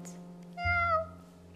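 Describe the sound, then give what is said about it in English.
A single drawn-out meow from a circus cat named Bella, clear, lasting about half a second with a soft low hum underneath and no talking. “Now the mermaid shared a caravan with Annie the acrobat and Ding and Dong the circus dogs, woof, woof, and Bella the circus cat.”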